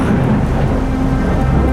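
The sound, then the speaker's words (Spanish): Steady heavy rain hisses over a deep, sustained rumble of thunder during a storm with lightning on a grey afternoon, loud throughout with no voices. “La gente busca refugio de la lluvia y de los rayos, truenos y centellas que caen con insistencia.”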